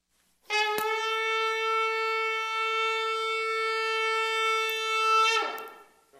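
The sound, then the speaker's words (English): One long trumpet blast, blown as a call to attention, rings out, a steady, bright, unwavering tone held for about five seconds, loud, before breaking off with a brief breathy rasp. “can you blow the trumpet?”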